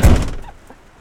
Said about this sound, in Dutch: We kunnen de deur dicht doen. Oh, dat is misschien ook wel een idee, ja. Dan gaat de deur dicht.